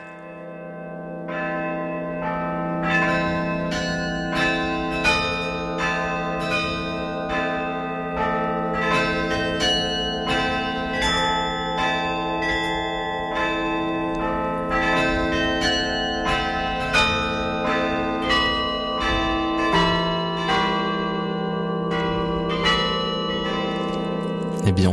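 Carillon bells in Lyon ring out a slow, melodic adaptation of one of Erik Satie's Gnossiennes, struck notes overlapping with long ringing decay, steady and fairly loud throughout with no voices.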